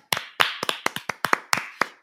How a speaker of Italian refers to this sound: Quindi un applauso a tutta l'Italia